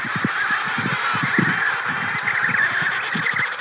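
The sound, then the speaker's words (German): A dense chorus of penguins screeching and braying at a colony as a researcher slowly creeps toward it, many harsh overlapping calls in continuous rhythm, loud, with no talking. “Niemand sagt ein Wort. Nur die Pinguine kreischen.”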